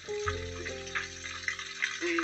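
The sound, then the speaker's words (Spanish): Water runs steadily from a tap, a continuous hissing splash with a low humming resonance underneath, fairly loud for the whole stretch. “ciérrale el, agua”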